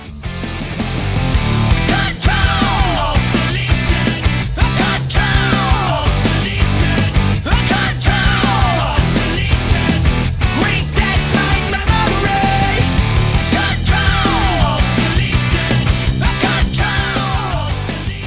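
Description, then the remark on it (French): A loud, dense metal song: a raw, screamed male vocal, shouting lyrics meaning roughly 'control alt delete, reset my memory', tears over heavy distorted guitars and steady pounding drums, with no pause for the full stretch. “Alors cet extrait de … où il crie”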